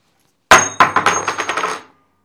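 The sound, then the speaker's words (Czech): A tossed coin hits a hard surface with a sharp metallic clink, then bounces and rattles in a quickening series of ringing taps before settling to silence, landing heads up. No one speaks. “Orel, začínáš z přesvědčení”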